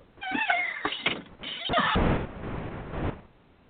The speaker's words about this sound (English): like we're squeaking the door.